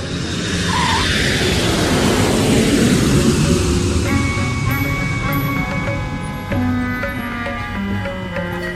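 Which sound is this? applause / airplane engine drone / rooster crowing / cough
airplane engine drone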